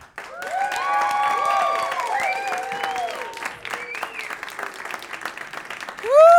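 A crowd bursts into sustained applause, dense rapid clapping mixed with whoops and high cheering voices, staying loud for several seconds before thinning, then a sharp shout rises at the end.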